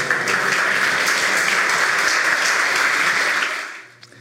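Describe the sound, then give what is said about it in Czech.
Sustained applause as people in small groups clap to thank one another, a dense steady clatter of many hands clapping at full volume before tapering off quickly near the end. “Děkujeme, zatleskejte si, poděkujte si v těch skupinkách.”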